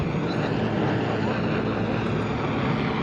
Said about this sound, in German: Der Hubschrauber über uns wirft Gasgranaten ab.